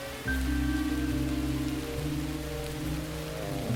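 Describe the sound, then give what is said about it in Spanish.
Steady rain falls at night, hissing continuously over a low, sustained droning tone, filling the whole stretch at a fairly even, moderate level with no voices. “Al menos con esta lluvia dudo que nos incineren adentro.”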